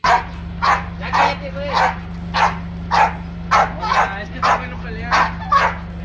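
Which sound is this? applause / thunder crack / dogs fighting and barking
dogs fighting and barking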